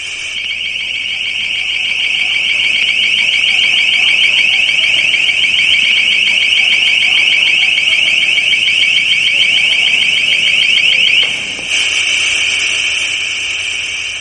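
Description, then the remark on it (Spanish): A piercing, sustained alarm tone from a long range acoustic device (LRAD), a sonic weapon, blares loudly and steadily for about eleven seconds, briefly cuts out, then resumes with the same harsh, shrill pitch, heard at a rally in Barcelona on 17 January 2014 supporting the residents of Gamonal. “Se trata del sonido de lo que hoy en día se llama un LRAD, un Long Range Acoustic Device o un dispositivo acústico de largo alcance.”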